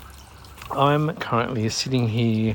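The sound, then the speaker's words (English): A garden water fountain about two or three meters away trickles steadily in the background, soft and continuous, while a man speaks over it outdoors under an umbrella in a backyard as light rain begins to fall. “And my nice little water fountain is about two or three meters away, and you probably can hear it trickling away in the background.”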